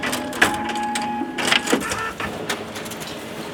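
A printer in a copy room printing documents, running steadily with a mechanical whir and tonal hum, punctuated by brief clicks and clacks as paper feeds through; the printing noise continues at moderate level throughout.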